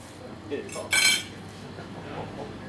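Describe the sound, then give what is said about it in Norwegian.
Silverware is taken out, clinking and rattling, with a couple of light taps followed by a brighter, louder metallic clatter lasting under a second, then quiet background noise with a faint voice. “Tar du fram sølvtøyet her, ser du.”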